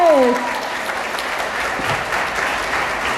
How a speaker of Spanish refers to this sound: Ok, un fuerte aplauso para nuestras estrellas crecientes.